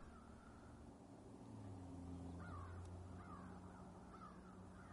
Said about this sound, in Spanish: Podemos escuchar algunas aves, por supuesto.